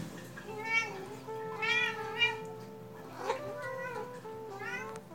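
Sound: cat meowing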